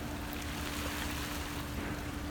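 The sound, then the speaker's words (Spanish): A steady, unbroken wash of sea waves, a dense hiss of water filling the whole moment at an even level, with a faint low hum underneath and no voices. “Es por eso que después de ver los videos que mis papás me han enviado y al escuchar las olas del mar, pude recordar lo genial que fue tener una infancia”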